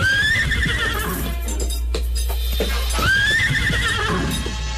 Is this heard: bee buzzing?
no